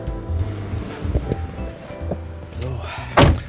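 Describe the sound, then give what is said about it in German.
A door is rattled and jiggled with several sharp clunks, then a louder thump near the end as someone struggles to get it open, with a low hum and faint voice-like sounds underneath. “Jetzt kriegt er die Tür nicht auf.”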